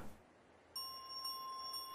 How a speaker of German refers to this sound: Als sie fertig gesungen haben, beginnt die magische Weihnachtsglocke zu läuten. Sie leuchtet hell auf und ihr Glockenklang ist süßer und schöner als jemals zuvor.